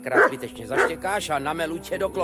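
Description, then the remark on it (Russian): A dog barks a couple of sharp times, followed by a run of higher, wavering yelps and whines that continue steadily until the end. “При этом, если обчищаешь дом ночью, то убедись, что у хозяина нет собаки, иначе она начнет лаять и разбудит его.”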